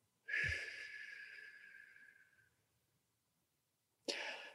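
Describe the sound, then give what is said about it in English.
A slow, steady exhale through pursed lips during a guided breathing exercise, breathing in through the nose and out through pursed lips, a breathy hiss with a faint whistling tone that fades over about two seconds, followed after a pause by the start of another breath. “Breathing in through the nose, out through pursed lips, in through the nose, out through pursed lips.”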